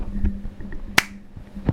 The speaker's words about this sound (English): Okay, I'm gonna clap. Ready? Oh yeah, we gotta sync it.